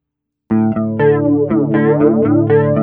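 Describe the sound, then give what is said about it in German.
An electric guitar played through a modulation effects pedal with its knob turned fully to the right, its chords wobbling and sweeping in pitch with a steady pulsing rhythm, loud and alone without any talking. “Ah, der wobbelt mehr. Ja, der macht was anderes, ne?”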